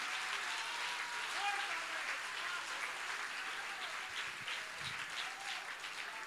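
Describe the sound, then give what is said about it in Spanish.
An audience breaks into sustained applause for the Lord, a dense steady wash of many hands clapping at once, holding at an even loudness for several seconds with a few faint voices mixed in. “Ese, si le va a dar un aplauso al Señor, déselo bien.”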